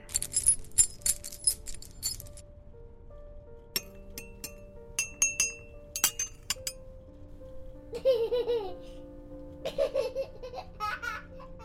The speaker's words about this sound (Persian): این کوچه بومبسته جلوتر نمیرم بچه ها دارن بازی میکنن به حریم بچه ها نباید وارد شد